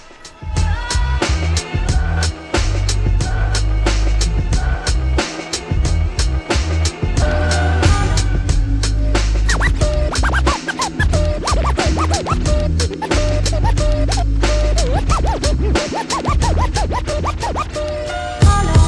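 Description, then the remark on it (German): A loud, continuous DJ mix plays throughout, with heavy pounding bass, rhythmic beats and turntable scratching cutting in sharply over the dense music. “hat wieder einen schönen Mix mitgebracht”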